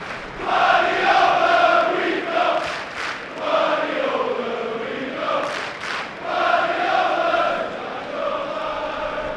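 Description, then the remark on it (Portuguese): A large crowd of football fans chants "We think he's brilliant" in unison in a stadium during a Premier League match, praising their Brazilian goalkeeper Ederson. It is a loud, sustained sing-song refrain with rising and falling phrases echoing across the stands, briefly dipping before swelling again. “We think he's fucking brilliant.”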